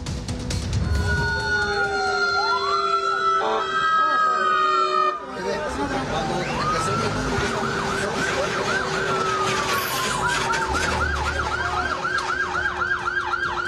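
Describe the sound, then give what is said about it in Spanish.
Fire engine sirens blare loud at a fire in a National Guard warehouse in Iztapalapa, several overlapping wails sweeping up and down before switching to a rapid, warbling yelp that continues to the end over a rumbling background. “Este es un incendio en un almacén de la Guardia Nacional en la alcaldía Iztapalapa.”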